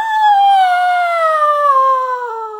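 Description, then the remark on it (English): A person imitates a howl like a siren going off at 2 a.m., with one long, high, steady wail whose pitch slowly sinks, loud, held for almost three seconds with no other sounds around it. “it was howling”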